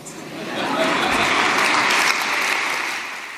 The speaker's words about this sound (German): Da kriegt er einen riesen Applaus für so einen Satz, den man eigentlich gut hätte erahnen können.